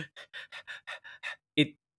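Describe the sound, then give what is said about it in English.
Rapid, shallow panicked breathing: about seven quick, breathy huffs in an even rhythm, clear, ending in a sharper, louder gasp. A person seems to be acting out the panting. “And when you panic, your breathing shortens.”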